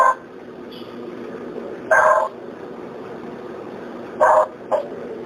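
Dogs bark far off, a few short harmonic barks spaced out over a few seconds, with a quick pair near the end, moderately loud over a steady background hiss.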